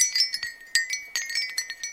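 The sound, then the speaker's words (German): Light, brittle clinks from a shell wind chime tumble in quick irregular clusters, about a dozen small taps with a faint bright ring, with no talking. “So, das ist jetzt ein eins aus Muscheln, also so ein genau so Muschelklangspiel.”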